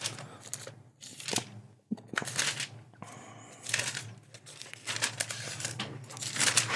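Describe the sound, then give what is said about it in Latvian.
Thin Bible pages rustle and crinkle in quick, uneven bursts as they are flipped through to the Psalms, with soft papery swishes and brief pauses between turns, no voices heard. “Tad, tā, um, mēs varētu atvērt, atvērt um, svētos rakstus.”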